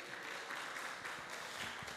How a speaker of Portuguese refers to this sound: Aí, palmas para os voluntários.